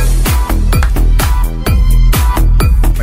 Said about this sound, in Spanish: te gusta esa canción